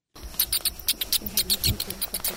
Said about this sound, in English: I want to play you a little bit of sound from that trip because you're going to get to hear what a bat sounds like